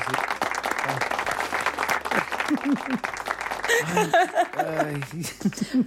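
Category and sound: crowd, clapping applause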